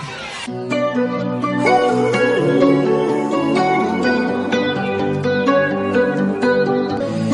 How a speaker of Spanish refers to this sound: ya tenemos preparadito por aquí uno de los temas virales del TikTok de este